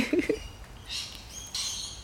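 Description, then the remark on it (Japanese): Faint bird chirps come in a few short, scattered bursts over a quiet outdoor background on a morning in Australia under a clear blue sky, with no one speaking. “鳥の鳴き声🦜オーストラリアの朝”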